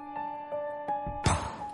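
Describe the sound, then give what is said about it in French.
A 9-year-old child plays drums, striking a few light taps, then a heavier, booming hit with a bright, ringing decay, set against a faint steady hum. “Je fais de la batterie.”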